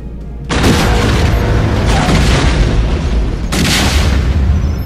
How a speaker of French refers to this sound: quitta précipitamment le hangar du croiseur en flammes alors que l'explosion le ravageait à son tour